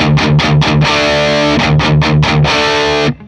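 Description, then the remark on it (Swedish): A distorted electric guitar chugs on one low open string (the open D or open E string): two bursts of four quick, even picked notes, loud and buzzy with a thick harmonic roar, then the sound cuts off. “Jag, jag, spelar på lös D-sträng så får ni höra lead och rhythm-läget.”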